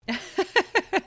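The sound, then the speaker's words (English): A baby boy breastfeeding, making a quick run of about five rhythmic, soft voiced gulping grunts in steady succession, with no talking. “I don't know if you can hear him. Yep, that's the sound of breastfeeding.”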